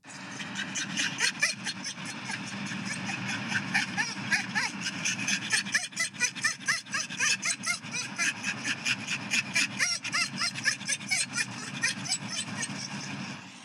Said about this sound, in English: I say dogs can be annoying. Point in case, I have a video with audio that I would like to play for you guys right now. It is very adorable. Don't get me wrong, This is very adorable.